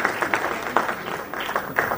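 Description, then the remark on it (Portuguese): A crowd applauds a guest being called up to sit beside the host, dense overlapping claps forming a continuous wash of sound with a few louder bursts, moderately loud. “Essa é grande figura, mas olha você com receber, você com receber muitos aplausos.”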